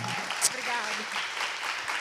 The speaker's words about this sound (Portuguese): Mas merece aplausos